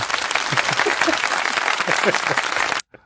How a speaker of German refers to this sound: einen feuilletonistisch inspirierten Applaus von mir eingespielt